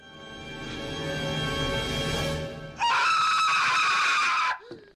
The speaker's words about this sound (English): That tarantula scream.